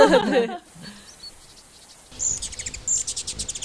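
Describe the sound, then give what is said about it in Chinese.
Birdsong played as an example of a pleasant sound, guessed at about thirty decibels: quick, high-pitched chirps repeat in a steady rapid rhythm, following a short burst of noise at the start and a brief quiet stretch. “鸟叫的声音 嗯，这比那刚 50 稍微大一点儿， 三十，三十分贝。”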